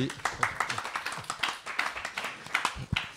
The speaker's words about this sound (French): Et on peut les applaudir parce que c'est une très belle exposition. Elle est superbe.